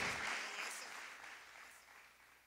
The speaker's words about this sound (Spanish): ¿Puedes darle un aplauso a, Jesús por todo eso?